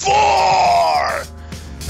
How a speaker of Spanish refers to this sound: Bueno, yo ya que estamos me voy a despedir con un simple grito de batalla.